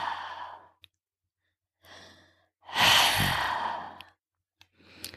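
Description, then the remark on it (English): Slow, breathy hissing exhales through a tightened throat, made by slightly constricting the soft palate in a breathing exercise, a few in sequence, with the longest and loudest in the middle. Each is soft and airy, separated by brief silences. “You should hear a soft hissing sound like that.”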